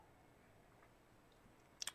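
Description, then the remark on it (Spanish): A quick sip of mezcal near the end: two or three short wet slurping clicks from the lips, after a stretch of near-silence with faint hiss. “Perdón, voy a tomar trago.”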